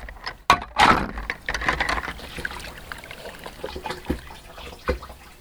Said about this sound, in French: Je fais un petit bain de pied euh, nécessaire. Si je veux pas que la caravane soit infestée d'une odeur fétide.